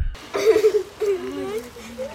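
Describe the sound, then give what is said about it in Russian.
A girl of about 10 or 11 crying nonstop outside a Soviet-era panel apartment block, where a child's body lies in an open coffin and neighbours bring flowers. Her high, wavering voice rises and falls in continuous sobbing whimpers with no clear words. “Девочка, которая кажется такого же возраста, что и Настя, 10 или 11 лет, безостановочно плачет.”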